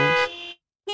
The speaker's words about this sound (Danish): Det er lyden af dythorn i radioreklamer, som nu også er i podcast.